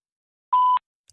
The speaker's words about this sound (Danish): Indtal din besked efter tonen.